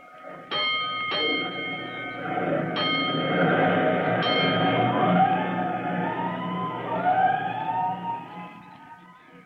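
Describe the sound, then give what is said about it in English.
A fire engine's bell clangs several times over a low engine rumble, then a siren begins wailing, rising and sweeping in pitch as the truck of Engine Company 209 pulls out of the firehouse in response to an alarm, fairly loud. “But before he can report to his officer, he hears an alarm, and he leaps aboard 209 as the great engine prepares to roll.”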